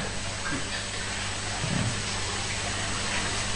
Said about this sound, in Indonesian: nah, hujan